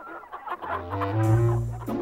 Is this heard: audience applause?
no